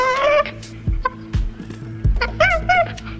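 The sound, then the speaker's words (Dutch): A chimpanzee laughs in a run of breathy, high-pitched squeals and pants, broken by low thumping knocks. It sounds fairly loud, with no talking. “En nu de, de chimpansee.”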